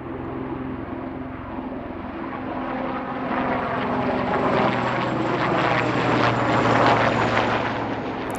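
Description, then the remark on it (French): A helicopter circles overhead outside, its rotor chop and engine hum filling the air and swelling slightly louder as it passes, with no voices present. “Dehors, j'entends tourner un hélico.”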